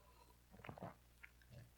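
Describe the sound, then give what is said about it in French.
A quiet sip from a drink: a few soft wet mouth sounds and a swallow over about a second, ending in a short sharp click, with no talking. “on va faire un petit, euh, un petit WhatsApp tout le monde, prendre une petite gorgée, hein, une petite gorgée.”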